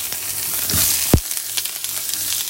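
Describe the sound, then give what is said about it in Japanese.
Onions and green peppers from Miyazaki, Japan sizzle steadily in a hot frying pan as the onions are added, a dense crackling hiss with a brief louder clatter and pop partway through, with no one speaking. “聞こえてますかねじゃあまずピーマンちょっとまだ途中ですけど玉ねぎを入れていきます”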